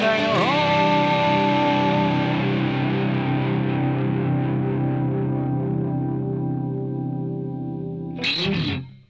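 A Japanese pop song plays on the radio without talk over it: a thick, effects-laden chord rings and slowly fades for several seconds, then a short noisy burst closes it off.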